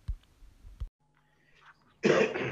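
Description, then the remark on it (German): A single loud, harsh cough bursts out near the end, following a few soft low thumps and a stretch of near silence. “Hast du gehustet?”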